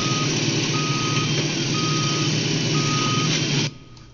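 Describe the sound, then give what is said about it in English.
Heavy digging machinery, tractors digging soil out of a hill, rumbles loudly and steadily while a reversing alarm sounds four long, evenly spaced beeps; the din cuts off abruptly near the end, leaving near silence. “Down in the tunnel, the foxes crouched, listening to the terrible clanging and banging overhead.”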